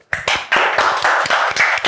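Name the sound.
people clapping hands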